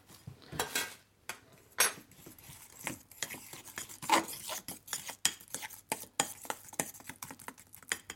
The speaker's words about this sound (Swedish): Eh, på florsocker, vatten och äggvita. Jag tror jag skiter i äggvita förresten. Jag tar lite vatten och lite citron. Ska jag ta fram en gaffel och röra med eller? Ja, ta en gaffel här. Det är bra.